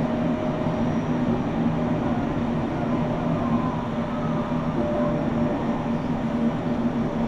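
A commuter train on the Tokaido Main Line runs steadily on its rails from Shinjohara to Toyohashi, Japan, a constant low rumble with a faint droning hum layered on top, unchanging in loudness throughout and with no voices.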